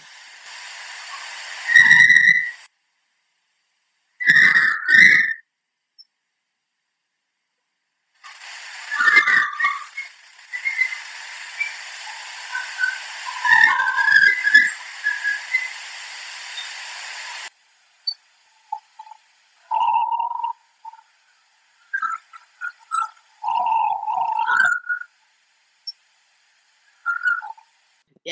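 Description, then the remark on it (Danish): Harsh, raspy shrieks come in loud bursts, then give way to a sequence of clear, fluting whistle-like notes that rise and fall in a melody. No one speaks. “skriger, så bliver det til sådan en melodi af en eller anden form for fløjte, lyder det jo til.”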